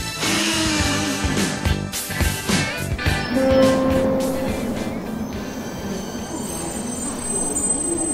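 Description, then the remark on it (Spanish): A London Underground train rumbles loudly and steadily on the rails, its wheels letting out shrill, sustained metallic squeals that rise above the clatter throughout. No one speaks. “En este cuarto episodio te voy a contar la historia de un clásico de Londres, el subte, también conocido como el underground o el tube.”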